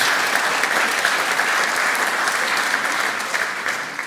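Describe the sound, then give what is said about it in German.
Sustained applause from an audience at a sermon, given for whoever made the stage decoration: a dense steady clatter of many hands clapping at full strength for about four seconds before easing off slightly at the end. “Aber ihr könnt mal einen herzlichen Applaus geben.”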